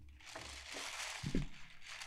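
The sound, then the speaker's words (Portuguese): Continuous crinkling and rustling of a Stephanie Store shopping bag being handled and opened, with a brief louder crunch partway through, no voices. “E aqui eu vou pedir meu amigo até pra ler na sacola o que, que tá escrito, amigo.”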